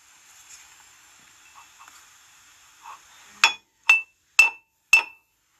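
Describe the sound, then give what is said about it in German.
Faint, low pub background ambience gives way to four bright glass clinks, evenly spaced about half a second apart, each ringing briefly and standing out loudly against the quiet background. “Ähm, ja, das heißt Kneipenausschnitt.”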